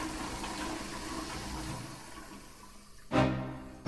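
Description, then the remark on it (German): A toilet at the Olympisches Feuer, at the Online Marketing Rockstars festival, flushes with a steady, hissing rush of water for about three seconds, then a sudden louder gurgling surge near the end. No voices. “Und ähm, das Einzige, was wir halt hier noch gefunden haben, ist das Klo im Olympischen Feuer.”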